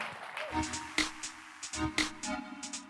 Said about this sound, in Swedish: I Jesu namn, om du är tacksam för att du är med i en sån kyrka, jag är det. Kom on, ge Gud en stor applåd.